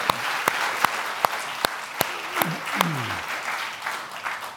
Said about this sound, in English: Come on, give the Lord a clap offering and thank Him.